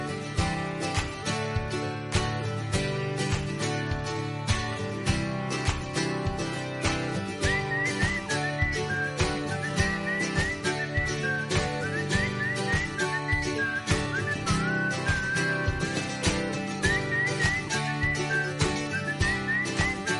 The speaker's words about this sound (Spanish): te vamos a poner la sintonía de, entrada de la Fundación Más Humano para despedirnos